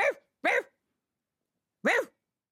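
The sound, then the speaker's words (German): A person imitates a poodle barking: three short, yappy "ruff" sounds, two in quick succession, then a pause before the third, clear, with no other talking. “Äh, ich bell hier mal wie ein Pudel. Ruff, ruff, ruff, ruff, ruff.”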